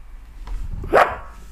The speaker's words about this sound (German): Also, sonnartigen Hund habe ich noch nie im Leben gesehen. gesehen und auch nicht gehört. Er hat jetzt das erste Mal was gesagt. Ja, das ist äh, mein Hund.